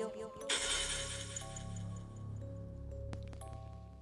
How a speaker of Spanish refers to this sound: Entonces tomé una botella de vino que tenía abajo de mi cama y empecé a darle con él. A la muñeca, la botella se rompió